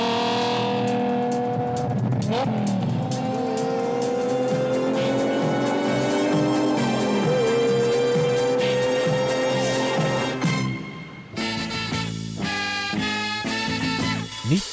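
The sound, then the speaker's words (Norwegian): Loud race car engines rev and roar steadily for about ten seconds, their pitch climbing and dropping, before music takes over toward the end. “og vi kan jo bare ta og høre på all eh, brummingen med en gang.”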